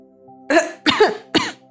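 Three harsh, choking coughs in quick succession, each a loud raspy burst with a strained, sputtering edge, separated by short gaps. No talking.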